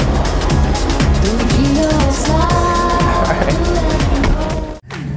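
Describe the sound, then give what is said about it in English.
A white car's engine hums and revs steadily during a city tour of Seoul, with rising and falling engine tones over a dense rumble of road noise, cutting off abruptly near the end. “If you want to jump in this white car prepared for you.”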